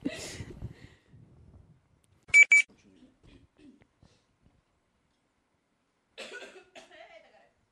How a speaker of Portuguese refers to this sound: Esse é tosse, então, né? Nem amor nem É, gás. nem amor nem gás, é tosse mesmo. É doença mesmo.